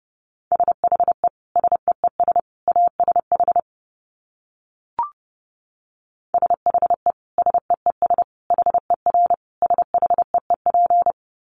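Rapid Morse code tones at about 30 words per minute, a steady mid-pitched beep keyed in quick dots and dashes, two bursts separated by a pause with a brief click between them, no voices.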